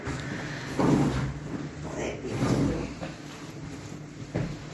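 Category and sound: household object, door being closed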